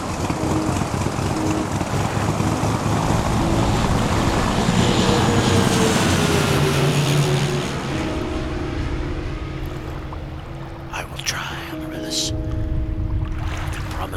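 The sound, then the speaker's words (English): A propeller aeroplane engine starts up and roars loudly and steadily throughout, its droning pitch shifting slightly partway through as it settles into a lower, rumbling hum. “start the aeroplane.”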